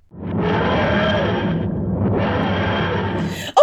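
The sound of the TARDIS materializing: a loud, sustained grinding whoosh, dense and wheezing, briefly thinning midway before surging back and ending in a sharp bright hit.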